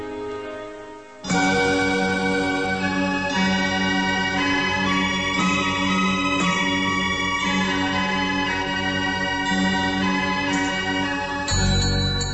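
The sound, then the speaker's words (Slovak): Church bells, swung by hand by bell ringers and sextons, peal loudly and continuously after a brief quieter start, their many overlapping tones blending into a dense, ringing wash with no voices. “mnohými tónmi zvonov, ktoré znejú ako si citlivejšie práve počas sviatkov, sú obetaví páni zvonári a kostolníci, ktorí vlastnoručne rozkývu srdce zvona, aby nám oznámilo dobrú či zlú novinu.”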